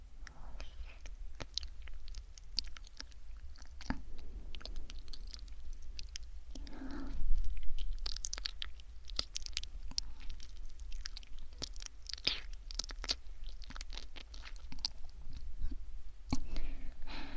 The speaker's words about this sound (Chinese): 哎，不许用牙齿咬。你是小狗吗？